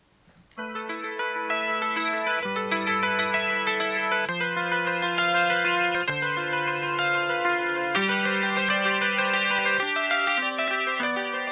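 A symphonic rock instrumental passage enters after a brief near-silent moment: dense, sustained layered chords with effects-heavy, echoing tones shift steadily every couple of seconds at a full, even loudness, with no voices.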